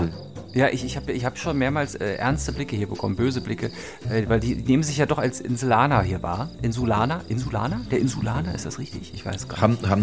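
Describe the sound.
Crickets chirp steadily in the background in Florida, a faint high trilling that runs under continuous conversation between people talking in the foreground.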